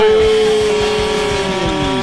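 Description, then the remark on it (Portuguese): A loud truck horn blares in one long, unbroken honk, its steady tone sagging slightly in pitch toward the end, over a low engine rumble, from trucks of the Transportes Marvel company arriving from a trip. “Um buzinaço.”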